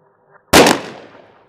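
A single sharp gunshot from a grandfather's rifle cracks out loudly and suddenly, then rings off in a fading echo over about a second, with faint low murmurs just before it.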